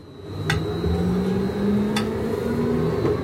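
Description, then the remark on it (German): A new tram under testing pulls away on wet rails with a steady, low droning hum that climbs slightly in pitch as the wheels spin, broken by two sharp metallic clicks. “Das ist das Tram, das bei nassen Schienen losfährt und der Ruf vom Cheftester.”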